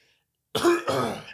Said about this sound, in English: that was a dad ass cough